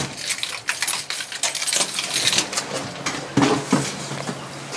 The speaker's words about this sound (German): Jetzt tropft es hier von der Decke, ah, viel, viel, hier vielleicht gerade ein bisschen weniger.